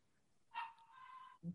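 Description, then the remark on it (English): A dog lets out a sharp bark that stretches into a drawn-out, whining yelp, then gives one short, low woof. Clear, with no talking. “Yo, somebody dog.”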